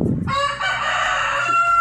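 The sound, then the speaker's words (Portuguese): A rooster at a home crows once, a loud, drawn-out cock-a-doodle-doo with a strained, harmonic-rich tone that holds steady for over a second, with no talking. “Olha o galo falando.”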